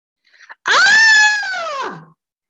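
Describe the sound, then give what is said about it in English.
One long, loud anguished wail rises abruptly after a couple of short gasping breaths, holds for over a second, then trails off. It is alone, with no talking. “I screamed, I yelled, my heart wrenched.”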